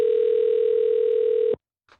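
signal or alarm, telephone ringing tone

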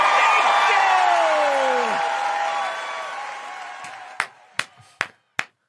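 crowd, audience applause and cheering

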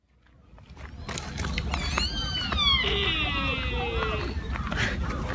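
animal, deer call

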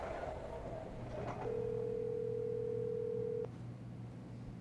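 signal or alarm, telephone ringing tone

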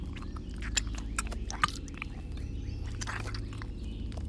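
sound effect, chewing

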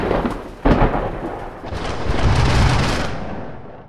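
nature, loud thunder crack

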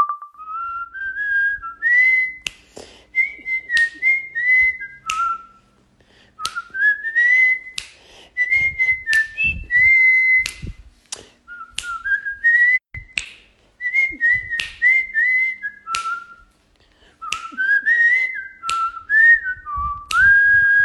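whistled melody

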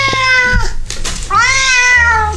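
animal, cat meowing

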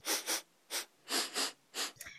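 human body sound, loud sniff

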